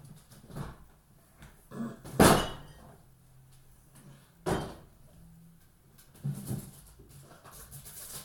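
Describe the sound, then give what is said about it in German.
A refrigerator door clunks open with a sharp, loud knock, followed by a second thump and softer rustling as puff pastry is taken out. No one speaks. “Ich hole jetzt erstmal den Blätterteig aus dem Kühlschrank.”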